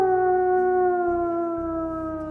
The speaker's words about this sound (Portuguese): Os latidos aumentavam gradualmente.